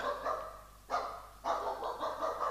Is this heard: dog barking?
yes